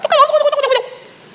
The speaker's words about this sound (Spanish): Y, el sonido que, llegó a mi mente ahora fue el, de los videos cuando lo hacen para atrás.